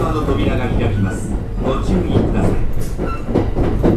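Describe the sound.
A Kintetsu 5820 series electric train on an Osaka Line express from Yagi to Uehonmachi rumbles along steadily, its low motor drone and rolling wheel noise loud, as if heard from inside a carriage, with faint indistinct voices underneath.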